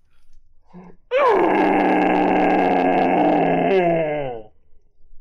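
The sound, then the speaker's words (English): A person voices a loud, drawn-out dragon roar, a growling groan that swells suddenly and holds for over three seconds before tapering off, with a brief low grunt just before it. “It's a loud, you recognize it as a dragon's roar, but you're not sure if anyone else will recognize the, the animal that made it as it echoes”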